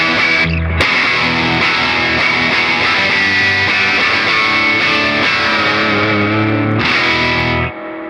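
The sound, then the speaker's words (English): A heavily distorted electric guitar on its most distorted, rock-style setting plays dense, saturated chords at a loud, steady level for several seconds, with a brief gap near the start, then cuts off abruptly near the end. “And then the um, that's like my that's my biggest uh, that's my like most distorted kind of rocker kind of.”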